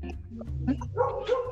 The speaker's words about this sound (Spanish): ¿No estás viendo que está ladrando, güey?